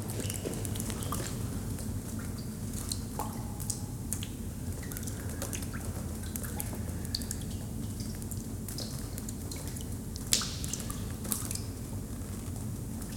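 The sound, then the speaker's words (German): Water drips from a leaky roof after heavy rain and flooding, in irregular, scattered taps and splats, some sharper and louder than others, over a steady low background hum. No one speaks. “da vorne ist das Dach ein bisschen undicht”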